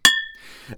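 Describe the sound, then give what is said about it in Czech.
Two beer glasses clink together once in a toast in a broadcast studio, a sharp knock followed by a short bright ring that fades quickly, with a faint voice stirring just afterward. “Takže pokud náhodou během vysílání uslyšíte něco jako tohle,”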